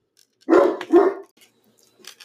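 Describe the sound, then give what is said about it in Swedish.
A deaf dog in Texas barks twice in quick succession, loud, each bark short and sharp, followed by a brief quiet stretch and a faint rustle at the end. “Det är roligt att ha en döv hund som man inte kan säga till.”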